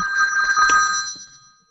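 A phone rings with an incoming call, a steady, bright electronic trill for about a second before fading out, fairly loud, with no one speaking over it.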